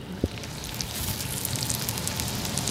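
Chicken breast fillets in a Greek Passion marinade sizzle steadily in a frying pan, a dense, hissing crackle with one sharper pop near the start. No voices are heard.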